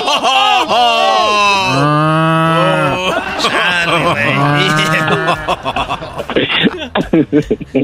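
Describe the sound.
A voice imitates a cow mooing with several long, loud, drawn-out moos that rise and fall in pitch, followed by choppy bursts of laughter near the end.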